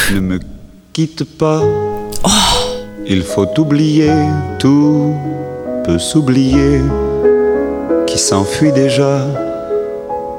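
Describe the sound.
A man sings the original French version of a chanson in a sustained, expressive voice with vibrato over steady instrumental backing, loud throughout with brief pauses between phrases.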